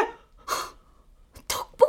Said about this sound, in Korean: 기침?